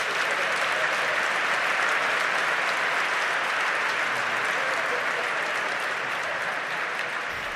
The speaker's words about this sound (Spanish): Y la Iglesia Metropolitana de Barcelona tiene dos hijos, que son San Feliu y Tarrasa. Y a veces uno se confunde porque los quiere mucho a los dos. Así que un aplauso para esas dos iglesias hermanas.